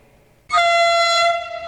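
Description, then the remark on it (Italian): A loud train horn blasts in suddenly after a brief quiet moment, holding one steady, brassy tone to the end with no voices present. “Il treno è passato e tu lo hai preso?”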